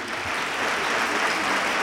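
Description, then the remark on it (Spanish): A crowd applauding the municipal band of Jaén at a pregón, a steady, dense wash of clapping hands that stays loud and even throughout the short clip, with no voices standing out. “De verdad, el aplauso más grande para la blanda de música que hoy nos acompaña.”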